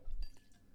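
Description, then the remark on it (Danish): Soft liquid clinks and a faint glassy drip in the background as a wine thief is dipped into a Jack Daniels barrel, brief and quiet, with a low rumble underneath and no talking. “Hvis man kan høre en lille smule i baggrunden, så er det fordi, at vintyven den er dykket ned i, i øh, Jack Daniels fadet derovre.”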